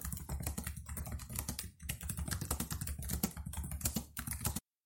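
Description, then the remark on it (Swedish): Rapid, steady typing on a computer keyboard while writing an email to a capsule hotel, with dense irregular clicks and brief pauses, continuing for several seconds before stopping abruptly. “Det låter lite spännande, så jag skickar iväg ett mejl till adressen som stod på hemsidan.”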